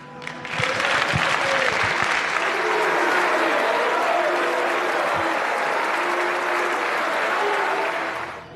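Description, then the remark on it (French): Sustained applause from a crowd for police officers injured by violence, prompted by Gérald Darmanin; a dense steady clatter of clapping that starts quickly, holds at an even loud level for about eight seconds, then tapers off. “Ou encore de Gérald Darmanin qui, lorsqu'interrogé sur cette fouille illégale, répond par un silence avant de faire applaudir les policiers victimes de violences.”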